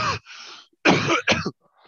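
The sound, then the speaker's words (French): A loud bout of coughing: a short hack, then two heavy, rasping coughs in quick succession with a throat-clearing quality, followed by a faint trailing breath. “ça y est, la Covid en ah, direct.”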